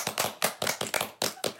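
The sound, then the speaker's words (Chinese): Brisk, steady hand clapping, about eight sharp claps in quick even rhythm, fairly loud and with no one talking over it. “我在 突破，有掌声。”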